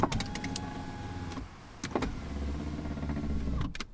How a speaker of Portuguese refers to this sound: Isto é o som de um vidro de um carro a abrir e a fechar. Não sei se estão a par de, deste tipo de som, mas é um vidro uh, automático a abrir e a fechar.